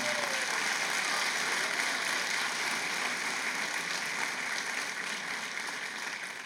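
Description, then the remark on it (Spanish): Steady applause from an audience applauding the Lord, a dense wash of many hands clapping that holds at an even level for several seconds before easing slightly near the end, with no talking over it. “Dele un fuerte aplauso al Señor por eso.”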